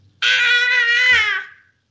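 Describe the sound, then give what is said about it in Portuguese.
A child's voice imitates a boy crying: one sustained, wavering wail lasting over a second, loud, with no talk over it. “o menino fica sem braço, aí ele começa a chorar”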